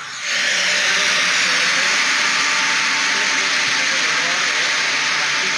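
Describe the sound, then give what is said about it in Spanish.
A diesel emergency generator installed at a former office building running: a loud, steady mechanical roar with a strong hissing layer over a low, even engine hum, starting abruptly and holding constant throughout with no voices. “ex oficina, le pusieron una planta de tratamiento, una planta de emergencia.”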